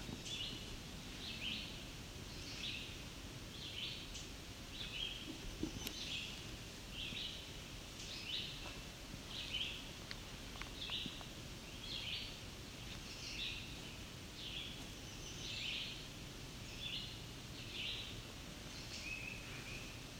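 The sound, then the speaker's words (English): A male chestnut-sided warbler gives a steady series of sharp, high ticking chip notes, roughly one per second, against a soft rustling outdoor background with no talking. “I believe it's our chestnut-sided warbler that's ticking.”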